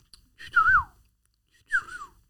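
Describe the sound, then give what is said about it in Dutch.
Two short whistled phrases imitating a golden oriole's fluting call, each a quick rising-and-falling warble, fairly loud with a pause between them and no talking. “Dus ik had eh, een paar keer het titel yoga gefloten. Hoe doe je dat?”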